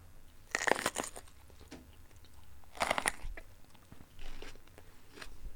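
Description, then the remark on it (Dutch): Two sharp, crisp crunches of teeth biting into a bell pepper with a mandarin inside, followed by softer chewing with no talking. “Ik begon met deze ehm, paprika die is eigenlijk geïnspireerd op het verhaal over het alter ego. Ehm, als ik een hap hier uitneem.”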